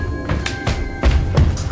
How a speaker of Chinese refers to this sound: 伴随着这个声音，一系列沉重的脚步向着雪梨的房间慢慢的靠近。